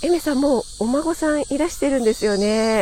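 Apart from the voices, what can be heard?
cicadas chirping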